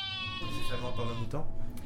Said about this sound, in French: Ah, ce mouton, hein.